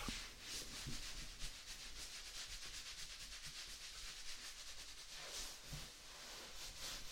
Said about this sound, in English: Just stand up for me and climb out of the tub. That's it. There we go. Good girl. Just let me towel you off.